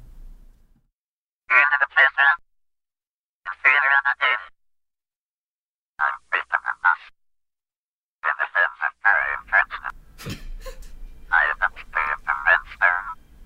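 Harsh, croaking alien voice chatters in short bursts of rapid 'ack ack' syllables with pauses between, loud and close, a brief sharp crack and low rumble joining near the end.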